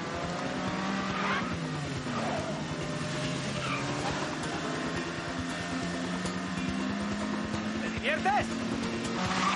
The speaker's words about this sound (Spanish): Acelera y adelantan a un coche.